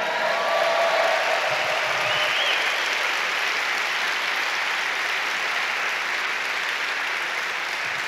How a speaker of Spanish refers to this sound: Vamos a un fuerte aplauso al Rey.